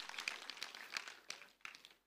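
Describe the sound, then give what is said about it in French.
A few scattered claps from a small audience, irregular and thin rather than a full round of applause, sounding somewhat quiet, with a couple of sharper claps near the end. “Je sais, il n'y a pas beaucoup qui applaudissent là-dessus.”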